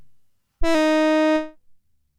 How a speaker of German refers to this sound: Aber es ist ja egal, als Soundlieferant für so 90er Jahresteil Sounds reicht's ja. Das klingt so ein bisschen wie so ein ähm, Stylophon wie man sie früher hatte.